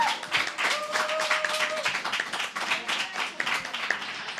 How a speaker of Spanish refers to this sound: pero vos vou pedir un aplauso enorme para elas. ¡Aplausos!